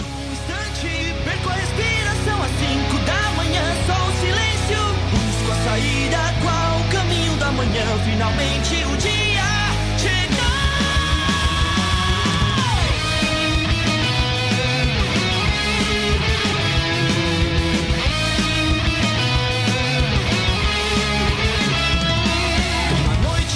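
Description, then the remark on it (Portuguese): An upbeat anime opening theme, the first opening of Boku no Hero, plays loud, a full band driving under a sung vocal line that carries on steadily for the whole stretch. “Sobe o som da primeira abertura.”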